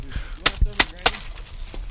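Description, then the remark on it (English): A legget, a flat wooden hammer, taps thatching reed into place on a steep roof: several sharp, dry knocks in an uneven rhythm, with a couple of duller thuds between them over a faint rustling background. “It's called a legget. That's what you put the reed on the roof with.”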